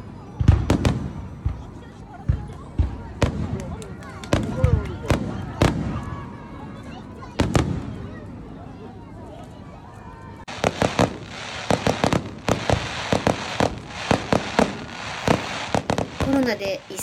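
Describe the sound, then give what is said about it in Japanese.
Fireworks burst outdoors at the fireworks display closing the Lake Festival at Onuma Park on a Sunday night, with loud, sharp booms spaced irregularly at first, then a dense, rapid volley of crackling pops toward the end, with faint crowd voices in the background. “そして昨日の日曜の夜は湖水祭りのフィナーレを飾る花火大会”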